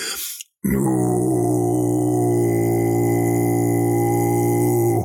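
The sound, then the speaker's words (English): After a brief breathy burst and a short pause, a voice holds a deep, steady Tibetan chant-style drone for several seconds, low and buzzing with rich overtones, loud and unbroken. “And once again, I've got a gazillion different sounds, including the”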